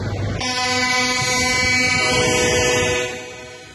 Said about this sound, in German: Mit einem eindrucksvollen Hubkonzert kamen Bauern mit ihren Traktoren an, begrüßt von Fernfahrern, die sich mit ihren Lastern ebenso eingefunden hatten. Der Sound der Freiheit, so hieß es dazu in sozialen Medien.